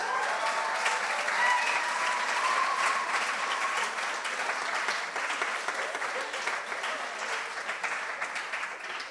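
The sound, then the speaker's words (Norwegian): Many people applaud steadily for about nine seconds, a dense crackle of many hands clapping at once that stays fairly loud before easing off slightly toward the end. “Ja, en applaus.”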